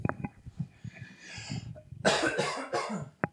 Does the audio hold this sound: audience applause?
no